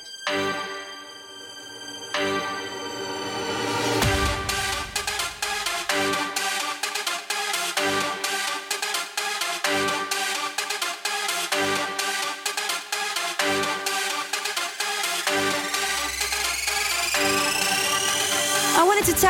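An electronic dance track plays loudly with no talking: a bright synth intro gives way to a steady, pounding beat, and rising sweeps build tension toward the end.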